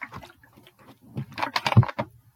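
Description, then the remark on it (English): A person takes sips of water, with soft slurps and swallowing gulps in a short irregular series, building slightly louder toward the end. “Sorry, I got to take another sip of water.”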